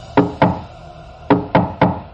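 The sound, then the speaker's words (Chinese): A female hotel front-desk employee knocks on a hotel room door: two sharp raps, a short pause, then three more evenly spaced knocks, each a loud, woody thud that fades quickly, with no voices. “有人敲门，跟之前那个女人叫门的声音不同，似乎是真的人在敲门。”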